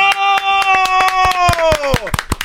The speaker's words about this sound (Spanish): No, Espérenme. no, espéreme, aplaudo. vamos.